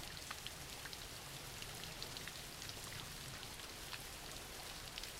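Steady rain falling, a dense, even hiss with scattered brighter drop taps throughout. The sound is fairly quiet and continuous, with no voices.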